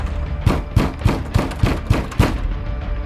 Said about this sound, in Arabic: وراءها ارتفعت أصوات الطرق على الباب قد عاد المزيد من الحراس